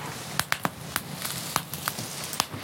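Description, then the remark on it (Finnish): Thinly sliced carrots and other vegetables sizzle with a little oil in a hot pan over a campfire, a steady hiss broken by sharp, irregular pops and crackles every fraction of a second. “Vähän öljyä sinne vielä sekaan, niin muhii tuossa kuumalla pannulla tuossa nuotion”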